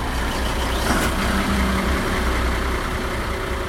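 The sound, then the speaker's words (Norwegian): A motorboat engine idles steadily, a constant low rumbling drone with a faint rattly hiss on top, holding an even loudness throughout with no voices. “Eh, og i dette tilfellet så har vi f.eks. én motor. Men ikke nok med det. Vi legger også på en motor til.”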